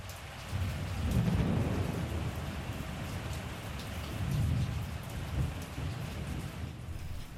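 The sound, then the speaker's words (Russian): Steady heavy rain hisses throughout while low thunder rumbles roll in twice, once near the start and again midway, with no voices present. “Вдруг в западной части неба несколько раз ударила молния прямо по куполу собора. Именно такую грозу обещали в прогнозе погоды.”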